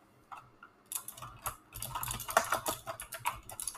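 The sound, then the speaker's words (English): Rapid, crisp clicking of a loud mechanical keyboard being typed on close up, irregular bursts of sharp keystrokes building after a brief quiet start, with no voices. “Um, so I felt like my productivity would rise if I had a keyboard that clicked really loudly because I like ASMR.”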